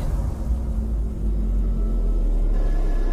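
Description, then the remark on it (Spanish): A steady low rumble of far-off traffic, cars droning in the distance with no distinct passes, a continuous muffled hum filling the quiet with no voices. “Solo se sigue escuchando a lo lejos el sonido de los autos.”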